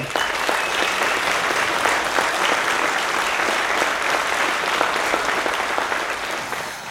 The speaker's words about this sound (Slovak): aby to nebolo také jednoduché, že dostaneš takýto lacný potlesk